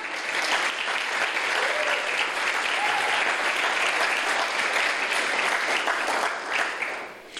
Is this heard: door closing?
no